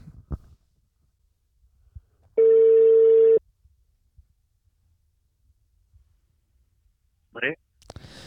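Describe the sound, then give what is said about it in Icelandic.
A single steady ringback tone lasts about a second: a loud, flat, mid-pitched electronic buzz-hum from a phone call being placed to a tournament director. Before and after it there are only faint clicks and brief scraps of sound. “Nú sláða þráðin Sláða þráðin, heyri í honum”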